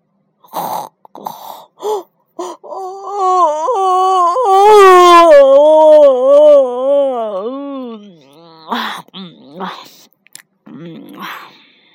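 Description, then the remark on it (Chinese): A voice imitates a long, drawn-out yawn: a loud sustained vocal tone wavering up and down for about five seconds, with short spoken syllables before and after it. “小兔子打了一个哈欠，小兔子也睡觉了。”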